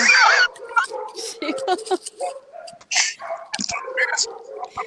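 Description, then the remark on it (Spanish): Two dogs yip, whine and bark excitedly in quick overlapping bursts, a busy, continuous jumble of canine noises with no pause over the few seconds. “llegó... la jauría. Bueno, no hay tigres, pero hay perros.”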